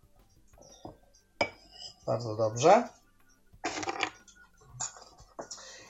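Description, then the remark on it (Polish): Sugar is poured into a mug to sweeten coffee in short, grainy rushes, with light clinks of the mug. A man speaks briefly between the pours. “Weźmiemy sobie jakiś kubek e, i dosypiemy sobie cukru.”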